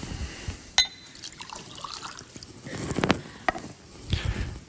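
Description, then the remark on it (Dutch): Water trickles and splashes into a glass, with a couple of sharp glassy clinks as it is handled. The pouring is soft, with no one talking. “We mochten water pakken, eh, hoorde ik net.”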